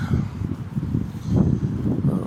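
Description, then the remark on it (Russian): Low, rumbling wind buffets the microphone in steady gusts, a muffled roar that swells slightly toward the middle and carries on throughout without any voices. “Так, ветер, прошу отнестись с пониманием.”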